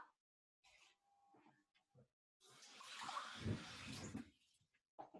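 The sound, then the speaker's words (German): A cup of water is poured into a pot already holding a cup of oats, in one steady, splashing rush lasting about two seconds, after a few soft background noises and murmurs. “Dann nimmst du eine Tasse Wasser.”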